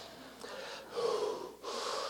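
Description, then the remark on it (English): Heavy, deep breathing of a person hiking back uphill on a trail: about three loud, rasping inhales and exhales in a steady, labored rhythm, like someone out of breath from exertion. No talking. “Deep breathing to keep myself alive, going back up that hill”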